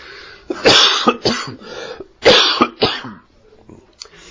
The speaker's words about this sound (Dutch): Eh, als ik dan moet hoesten, dan eh, heb ik geen zin om, eh, om u ook meteen eh, een overdovend geblaf te, te bezorgen. Even, even mijn vinger opsteken en dan doe jij hem zacht.